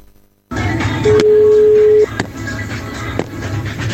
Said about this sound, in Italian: Cioè la gente comincia a sbattere la mano sul tavolo e fa il segnale orario di quest'altra radio.